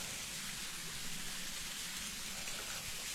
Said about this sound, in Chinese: 我旁边的话是一个小溪在流淌着，水声非常的好听，哗啦啦的。